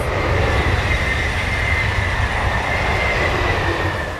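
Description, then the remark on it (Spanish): A Japanese bullet train rushes past, a steady loud roar of wheels on rails with a high whining tone over a deep rumble, fading slightly at the end. No one speaks. “Trenes bala, salas de pachinko, motos, fábricas, tráfico, ruido, progreso, contaminación.”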